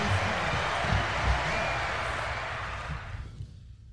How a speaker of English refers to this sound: Let's hit the applause button on that one. Let's hit, hit, hit, the applause button on that one.